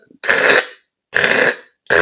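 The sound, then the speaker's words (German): A very old mechanical alarm clock, set for a 6:30 alarm, is wound: three harsh, grinding ratchet strokes in a steady rhythm, each a loud rasping burst of under half a second, with no talking. “Ist eine sehr alte Uhr, das ist ein bisschen Sand im Getriebe.”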